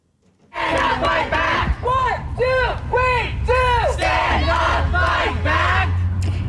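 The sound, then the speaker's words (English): A crowd of protesters chants in unison outdoors outside the Leon County Courthouse in Florida, protesting a six-week abortion ban, loud rhythmic shouted phrases repeating roughly every half second, with a steady low rumble of traffic or street noise underneath. “Yesterday, Occupy Tally activists protested outside the Leon County Courthouse while across the street, the Florida Senate passed a six week abortion ban.”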